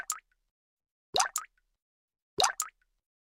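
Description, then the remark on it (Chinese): Water drips onto a floor in a slow, steady rhythm in a dark upstairs room holding only clothes and cabinets: three clear plops about a second apart, each a quick bright double splat, with silence between them and no voices. “嗯，我心里有点困惑，怎么有听到水在地的声音啊？”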